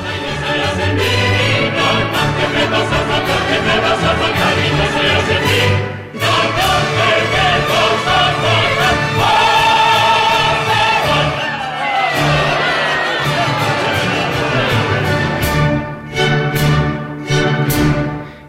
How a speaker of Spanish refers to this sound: eran las, seguidillas, las famosas de seguidillas de, la verbena de la paloma, de Tomás Bretón.